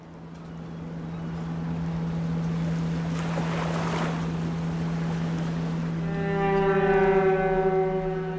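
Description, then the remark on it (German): Waves wash and crash against house walls at the Hamburg fish market, early on a Sunday morning during a flood, in a rising, rushing swell over a steady low mechanical drone, with a bright tonal horn-like sound entering near the end. No voices. “Wellen rollen gegen die Hauswände, zerstörerisch.”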